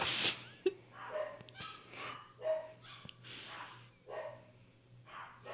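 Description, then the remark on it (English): A dog barks repeatedly in short, uneven bursts, with a steady low hum in the background and no one speaking. “Can you hear that barking?”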